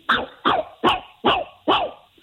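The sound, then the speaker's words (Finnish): A person imitates a shrill, yappy little dog: five sharp, evenly spaced barks in quick succession, loud, with no other talking around them. “Tehtiin isompaa koiraa ja ihan semmoista räksyä, semmoista tuollaista noin niin kuin kimakkaa pikkukoiraa”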